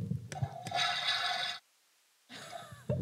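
A toy potty that imitates a real toilet plays a toilet flush sound effect: two bursts of rushing, hissy noise separated by a brief silence, fairly loud, with faint clicks and rustling around them.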